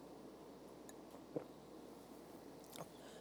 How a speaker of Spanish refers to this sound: déjeme tomar un traguito de agua ahí para que pueda seguir con esto.